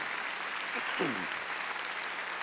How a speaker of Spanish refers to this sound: Démosle palmas, Señor, a ti sea toda la gloria.